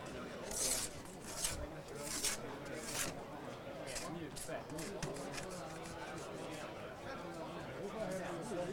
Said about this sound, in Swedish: Det sicklas och skrapas och paraffinet flyger hej vilt. Så, så gör vi samma procedur där.